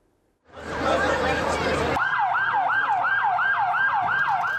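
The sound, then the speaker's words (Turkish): At a car crash scene in Osmangazi, Bursa, Turkey, where a car fell from an overpass, a loud burst of noisy commotion gives way to an ambulance siren in a fast, steady yelp, rising and falling several times a second, continuous until the end. “Araçtan çıkarılan yaralılar kaldırımda ambulans beklerken can pazarı yaşandı.”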